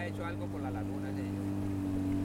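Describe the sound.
A motorboat engine on the Sonso lagoon drones steadily, a constant low hum running unbroken through the whole stretch, with muffled voices faintly audible over it.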